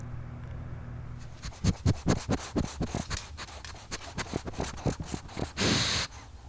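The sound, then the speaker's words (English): A dog scratches in a quick, rhythmic series of raspy strokes for several seconds, finishing with one longer scrape. It's fairly clear, with no one talking. “That's my dog.”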